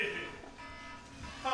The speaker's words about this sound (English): That's the slur alarm. it went off. Woo, woo, woo.